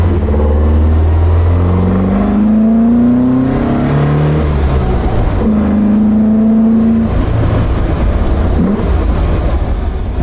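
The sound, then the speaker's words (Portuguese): An Alfa Romeo car engine revs hard with a deep, growling exhaust, pitch climbing and falling through several gear changes, loud with no talking. “esse som, a proximidade dos pedais, esse som do escape.”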